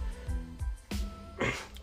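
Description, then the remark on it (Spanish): Two short, harsh coughs or throat-clearing bursts from a man with a slight cold, moderately loud, separated by a brief pause, with some low rumbly vocal sounds just before them. “perdón, es que estoy un poco así como resfriadito, como con tos.”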